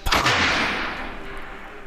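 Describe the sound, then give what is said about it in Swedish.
A single loud gunshot, the second shot fired at the Wendigo at night, cracks sharply, then its boom rolls away in a long, fading reverberation, as if echoing across open ground. “Natten är ju tyst förutom tumultet i den här stugan och någon uggla som hoar när det andra skottet går av.”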